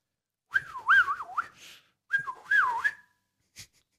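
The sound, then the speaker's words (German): A person whistles a made-up, wavering, warbling bird-like tune in two short phrases, fairly loud, ending with a brief faint click. “Frei erfunden, vielleicht eine schwerkranke Meise.”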